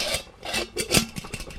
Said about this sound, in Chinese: 水壶的盖子为什么会上下震动呢？ 他好奇地把水壶盖子打开，突然间蒸汽冒了出来，瓦特恍然大悟： 哦，原来是水蒸气让盖子上下震动啊！